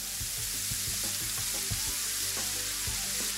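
A steady, dense sizzling hiss like food frying, with small irregular crackles and pops scattered through it at an even loudness. No one speaks.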